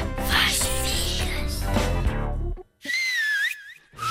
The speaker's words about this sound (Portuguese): o assobio